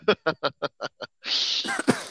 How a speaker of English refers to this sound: bless you.